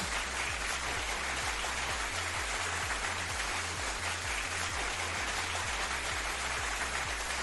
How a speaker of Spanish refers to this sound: Otro aplauso para los lectores, otro aplauso.